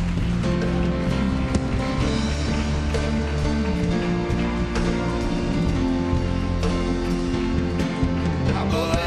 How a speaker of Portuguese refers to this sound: Você pode aplaudir ao Senhor, receba o cumprimento dos irmãos.